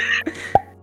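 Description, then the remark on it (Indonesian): A voice makes a short, blunt mouth noise imitating a fart, one quick puff that pops out after a brief breathy hiss, not very loud. “kalau kentut, kalau kentut nggak ada bunyinya, bunyinya boh.”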